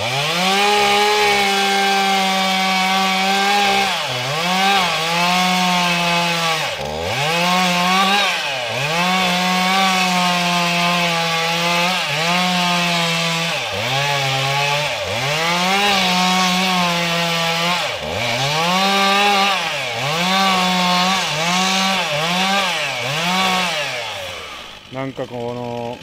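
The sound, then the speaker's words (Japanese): A chainsaw roars loud without pause in a forest, its motor pitch dipping and surging again and again as it bites into the wood of a tree, then cutting off abruptly at the end. “森の中に響くモーター音ってなんかいいっすねなんだろうなこのやっぱモーター音ってなんか燃えるよね”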